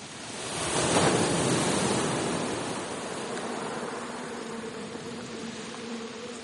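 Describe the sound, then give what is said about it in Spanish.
A steady, thin mosquito buzz hums over a broad whooshing noise that swells early and then settles into a constant hiss. No one speaks. “Así fue el caso de este reportaje que dedicamos a cómo evitar las picaduras de los mosquitos, insectos que abundan en verano y que sin duda trastornan nuestros sueños.”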